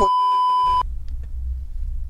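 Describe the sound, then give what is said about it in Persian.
A single steady censor bleep, a bright pure tone held for under a second, cuts off abruptly and gives way to low rumbling background noise. “بوق بوق میذارم بوق میذارم”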